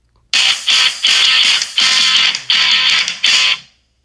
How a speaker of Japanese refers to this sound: 今何か謎の音楽がおそらく流れていたと思うんですけれども、これもあのー、ラジオトークの機能らしくて、昨日、効果音という機能を覚えたら、今度はどうやらそれと似たような感じで、まあ、ジングル、えー、が流せると、えー、知ったのでね、え今早速流してみたんですけれども。